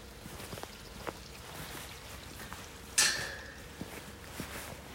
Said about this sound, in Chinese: 今天是二零一九年十一月十七日早上六点，大家听听这个山间的这个泉水声，还有月亮。